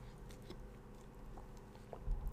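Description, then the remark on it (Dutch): A quiet sip of water: soft wet mouth noises and a small slurp, ending in a slightly louder gulp near the end, with no one talking. “Ik neem even een slokje water.”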